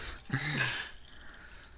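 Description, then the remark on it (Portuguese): A short splash of water poured into a glass, lasting under a second, with a faint rising gurgle, followed by quiet room noise. “Serve um pouquinho de água aí que eu vou continuar uhum.”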